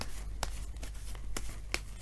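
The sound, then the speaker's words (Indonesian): Tarot cards being shuffled to draw an advice card for Leo: a soft, steady papery riffle punctuated by three sharp, crisp snaps at irregular intervals, with no one speaking. “kartu nasihat yang diberikan untuk Leo”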